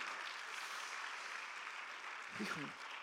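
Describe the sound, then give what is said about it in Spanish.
An audience applauds their Lord, Jesus, a dense, steady wash of many hands clapping that holds evenly for about three seconds, with a brief voice rising near the end. “Dele un aplauso a su Señor si lo es.”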